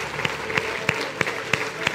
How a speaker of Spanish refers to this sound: Si tú crees que el Espíritu Santo te ha mostrado algo en especial, una lección, te ha traído sanidad y liberación, dale un fuerte aplauso a Jesús. Dale ese fuerte aplauso a Jesús.